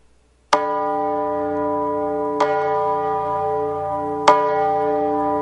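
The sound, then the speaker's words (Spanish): A church bell tolls three times at a slow, steady pace, each loud strike ringing on into the next with a rich sustained hum. No voices. “pero ahora sí, porque yo con mis propios oídos acabo de escuchar esa campana.”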